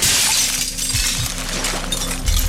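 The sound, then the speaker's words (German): A window shatters loudly as a man breaks it with repeated blows on the same spot to free his partner, a sustained burst of breaking glass with bright crackling fragments and heavy low thuds, continuing for a couple of seconds without any voices. “Schließlich zerspringt das Fenster.”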